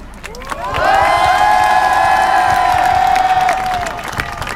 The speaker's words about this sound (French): Il faut applaudir nos camarades. Ils sont en train de désarmer le réseau de la bassine.